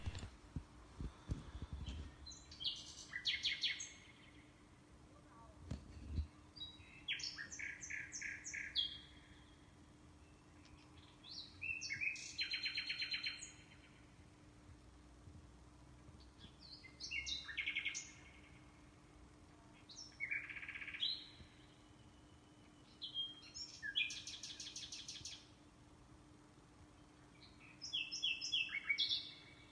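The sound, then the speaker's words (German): A common nightingale sings a series of varied phrases, bursts of rich whistles, trills and rapid repeated notes separated by short pauses, clear against a quiet outdoor background. “Damit ihr die Nachtigall draußen in der Natur besser von den anderen Vögeln unterscheiden könnt, hören wir uns jetzt noch ein paar Strophen an.”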